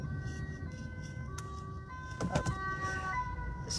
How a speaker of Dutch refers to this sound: er kwam even een eh, ambulance achter me aan. Nou, dat hoort er ook bij als je in de auto je podcast opneemt.